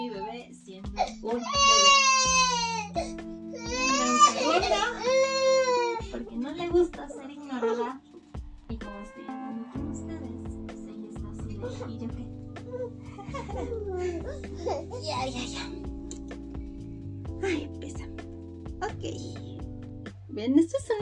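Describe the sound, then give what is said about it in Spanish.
A baby girl fusses, letting out loud, wavering cries in the first few seconds, then trails off into softer whimpers and babbling over a steady low background hum. “Mi bebé se está poniendo ansiosa.”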